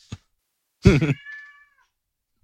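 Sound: cat hissing and meowing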